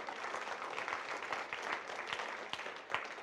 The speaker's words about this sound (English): Come on, Spurgeons. Give me a, give God a clap or something. Yeah, you can do that.